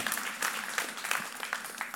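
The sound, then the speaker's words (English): An audience applauds steadily, many hands clapping in a dense, continuous patter with brief louder bursts throughout, no voices standing out above it. “i clap for that because I want to be a part of his family.”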